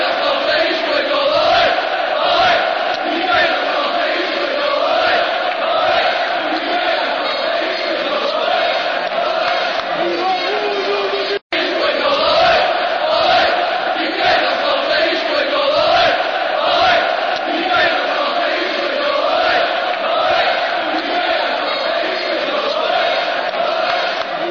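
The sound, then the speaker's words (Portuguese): Portuguese football fans chant "Quem não salta é espanhol" in unison in a stadium, a loud, steady mass of voices singing a repeated rhythmic tune, with a brief cut midway before the chanting resumes. “Quem não salta é espanhol, canta a torcida lusitana.”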